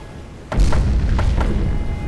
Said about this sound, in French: Nous sursautâmes tous les trois lorsque la première météorite s'écrasa sur le sol. Une lourde explosion projeta un immense nuage de poussière vers le ciel.